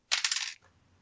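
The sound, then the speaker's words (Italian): Dice are re-rolled, clattering across a hard tabletop in a quick half-second burst of rattling knocks, fairly loud, then settling into near silence. “Quindi Devo ritirare un dado o tutti, tutti e due?”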